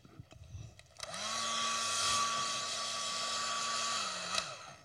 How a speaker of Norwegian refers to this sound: Det er en hårføner. Hva bruker vi den til?